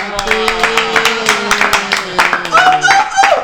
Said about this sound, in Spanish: Un aplauso, güey.